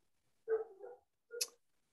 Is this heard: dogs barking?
yes